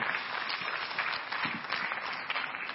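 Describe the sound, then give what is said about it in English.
An audience at a worship service applauds the choristers as they go to take their seats, a dense wash of many hands clapping at once with no gaps, holding an even, fairly loud level throughout with no voices standing out. “Let that clapping pull down the ceiling tonight.”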